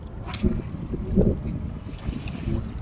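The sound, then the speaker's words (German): Steady rushing of river water, a continuous low roar broken by a few brief splashes and gurgles, with a hint of wind and no voices. “Dazu noch das, das äh, Meeresrauschen ist es ja nicht. Das Flussrauschen.”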